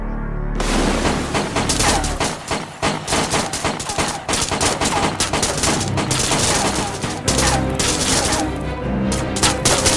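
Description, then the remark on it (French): Sustained, loud gunfire in a video, with everyone firing at a man in a CGI armor suit who breaks down a door: rapid bursts of shots firing one after another in a dense, crackling barrage, with heavy low booms rumbling underneath and a brief lull near the middle. “Et là, on voit le type en enfin, enfin l'image de synthèse, donc de cette armure, du type qui défonce la porte, de tout le monde qui lui tire dessus et ça, et ça lui fait rien, quoi.”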